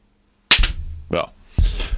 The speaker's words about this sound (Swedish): Eh, kan du, kan du göra en sån här klappa en gång? Ett, två, tre.